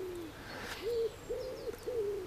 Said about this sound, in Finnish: Eli kun jostain havupuun kätköstä kuuluu sepelkyyhkyn huhuilua, niin ihmiset ajattelee, että heidän pihalleen on tullut pöllö.